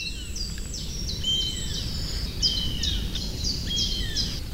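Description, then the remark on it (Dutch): Young honey buzzards call back and forth in thin, high, downslurred whistles, repeated steadily and sometimes overlapping, the calls moving about, over a constant low rumble of background noise. “Uilen die moeten in hun bed zitten, dus volgens mij zijn het buizertachtigen en bij voorkeur wespedieven.”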